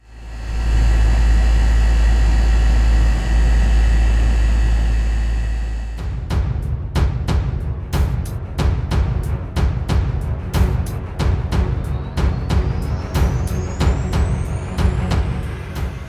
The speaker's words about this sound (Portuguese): Se você está ciente e deseja continuar, permaneça na linha após o som do meu ar-condicionado.